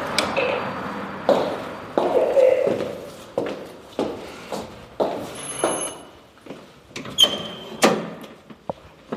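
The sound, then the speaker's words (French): A door at the offices of the Expat Communication agency opens with a creak and a clunk, followed by a steady series of footsteps walking in, each step a distinct knock on a hard floor. “La porte est ouverte.”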